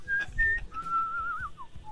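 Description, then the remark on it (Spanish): A pet bird named Bionchi whistles a series of thin, sustained tones that waver and slide, with a short falling note near the end, over low background rumble and murmur. “El pinche pájaro quiere plata para que, que se calle porque no puede contestar ya.”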